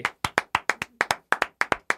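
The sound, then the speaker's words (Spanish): About a dozen sharp hand claps in quick, slightly uneven succession, each a crisp slap with a short decay, with no voices alongside. “¿Por qué no aplaudes? Venga.”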